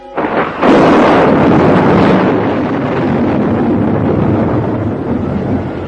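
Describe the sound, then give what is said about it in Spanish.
A loud, sustained roar of stormy wind opens with a sudden burst and rushes on steadily for several seconds, a broad thunder-like rumble with no voices. “El estallido de la tormenta.”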